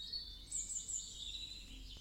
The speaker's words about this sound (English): Hear the birds sing and take in all the beauty around you.